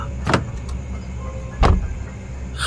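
Inside a stationary car with a low steady hum, two sharp door clunks sound about a second apart as someone gets out, followed by a faint rustle at the end.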